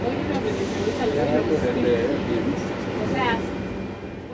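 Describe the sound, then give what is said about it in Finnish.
Inside a Barcelona metro train carriage, a steady rumbling hum of the moving train fills the background while many passengers chatter at once in an indistinct, lively murmur. “Tässä ääntä puhekielon keskeltä barcelonalaisesta metrosta.”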